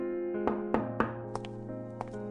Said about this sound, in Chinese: 秘书敲门走了进来，将一份白纸红章的文件小心翼翼的放在了他的面前。